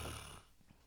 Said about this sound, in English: You're yawning.